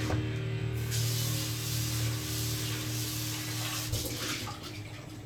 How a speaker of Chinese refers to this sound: 首先，先把锅啊，拿这个自来水简单的冲一下